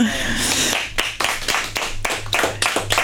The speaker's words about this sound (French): Désolé pour vous, public. vous pouvez quand même applaudir.